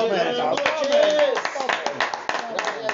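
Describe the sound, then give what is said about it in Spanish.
An audience breaks into applause for the Cruz Azul football team, a dense, steady patter of many hands clapping for a few seconds, with voices calling out and cheering mixed into it. “un aplauso para el buen Cruz Azul que pudo hacerle esta ocasión.”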